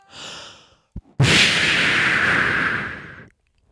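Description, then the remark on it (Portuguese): A smoke bomb goes off: a brief hiss and a sharp click, then a sudden puff of smoke bursts out into a loud, sustained hiss that fades away after about two seconds. No one speaks. “Bombinha de fumo.”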